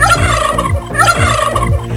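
A turkey gobbles loudly, a run of rapid, warbling bursts that rise and fall over about two seconds, with no voices present.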